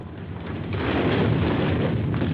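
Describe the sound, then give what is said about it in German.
A deep, thunderous rumbling crash as the Campanile di San Marco bell tower collapses shortly before 10 in the morning, swelling louder after a moment and roaring on without a break. No voices are heard. “Der Turm wankt, stürzt unter Donnerkrachen zusammen.”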